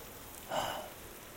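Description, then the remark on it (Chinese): Gentle rain patters softly and steadily at a school, a faint hiss of drops with one brief, slightly louder swell partway through, while a cool breeze blows. No one speaks. “雨声淅淅沥沥的，还有一些舒服的凉风吹着。”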